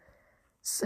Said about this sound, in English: my cat just sneezed